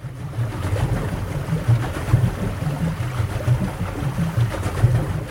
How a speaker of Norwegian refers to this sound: Det er januar 1891, og vi befinner oss på en dampbåt i Det indiske hav.